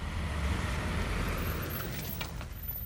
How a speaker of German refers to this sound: Tonakis parkt sein Auto in der Pufferzone, ein Stück vom Zaun entfernt.